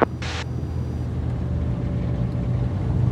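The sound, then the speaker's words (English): A steady, droning engine rumbles, with a brief hissing splash near the start, as a small floatplane touches down at the mouth of Walker Lake and motors on across the surface, under low cloud with mountains rising all around the lake. “We reached the mouth of the lake and touched down.”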